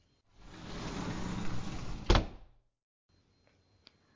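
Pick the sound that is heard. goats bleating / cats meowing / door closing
door closing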